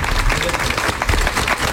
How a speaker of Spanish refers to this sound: A ver, vamos a dar un aplauso para que sepa la gente que estáis aquí, que no estamos solos.